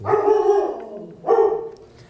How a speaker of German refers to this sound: Und das war unser Reaktionshund, der jetzt irgendwie äh, hm, Furz quer ne?